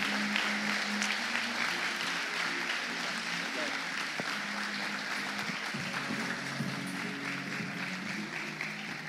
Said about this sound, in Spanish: No sé por qué no te pones de pie y lo recibes con un aplauso súper, súper afectuoso y caluroso.